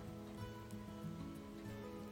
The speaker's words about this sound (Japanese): 雨音に耳を澄ませてこの時期も楽しんでいきましょう